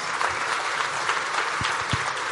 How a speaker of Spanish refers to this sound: le vamos a brindar un aplauso y le vamos a decir bienvenido, gracias por estar con nosotros.